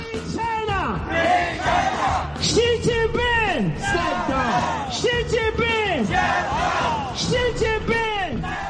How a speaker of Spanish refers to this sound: Se han vuelto a escuchar los gritos esta noche de protestas de los ciudadanos por la agresiva política de Covicero que mantiene pues muchos movimientos restringidos. Y en este caso ha sido en Guangzhou, ¿no?